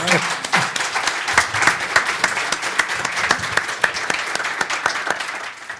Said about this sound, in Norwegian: Tusen takk for at dere kom. Applaus, folkens.